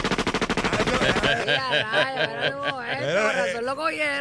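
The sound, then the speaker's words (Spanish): A rapid, evenly spaced string of sharp pistol shots from a Glock rattles off for about a second, then a voice talks and chuckles over the end. “Era una Glock, no era una metra”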